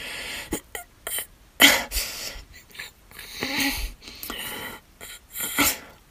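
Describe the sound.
A woman imitates the wheezy, heavy breathing of a girl she was once friends with: a series of raspy, noisy inhales and exhales in uneven bursts, fairly loud, with short gaps between breaths.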